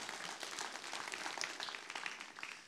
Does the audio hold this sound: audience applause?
yes